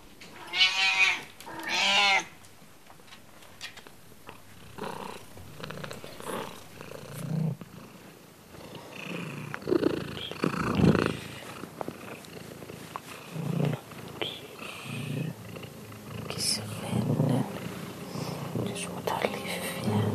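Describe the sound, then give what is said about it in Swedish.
The cat Offeli purrs in a steady, rumbling rhythm, with a couple of brief tonal cries near the start and soft, whispery voices in the background. “Vart får du Kisse nu då? Kisse? Kisse?”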